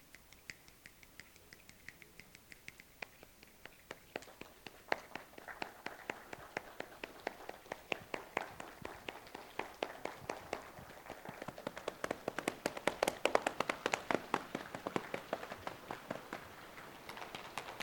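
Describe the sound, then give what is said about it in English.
Many hands snapping, tapping and clapping in a scattered, overlapping patter that swells louder toward the end, a group imitating the sound of rain without any talking. “Doesn't that actually sound like rain?”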